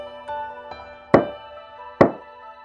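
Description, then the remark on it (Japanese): Knocking on the wooden door of a house: two faint taps, then two louder, resonant knocks spaced about a second apart, with a soft sustained musical tone underneath. “人間の家の扉を叩いた。”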